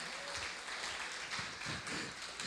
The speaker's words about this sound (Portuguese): Você pode glorificar a Ele, aplaudir a Ele mais forte.